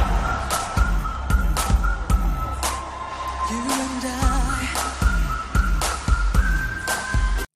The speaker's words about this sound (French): À ça t'ajoute une chanson mi-français mi-anglais pour la bonne compréhension de toutes et tous. un petit sifflotis pour un gimmick qui reste bien en tête.